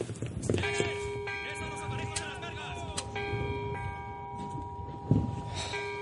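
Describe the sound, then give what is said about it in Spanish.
A ship's bell is struck several times at uneven intervals, each clang ringing out and lingering over a busy background of noise and faint voices. “Un soldado gira el reloj de arena. ¡Toca la campana!”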